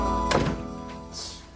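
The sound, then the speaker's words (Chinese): A dull, solid knock on a door, followed by a softer second tap, set against a steady low background hum with no voices. “进来了，我敲门呢。”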